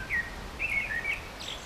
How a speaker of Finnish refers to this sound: Meidän ei tarvitse puhua mitään. Niin. antaako mustarastaa hoitaa lähetystä vähän aikaa